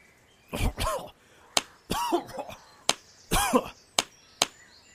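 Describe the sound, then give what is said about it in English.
A man coughs water out of his lungs in three harsh, sputtering fits with gasping breaths after falling into water, while another person's sharp slaps land on his back in between, no other talking. “I coughed the water out of my lungs.”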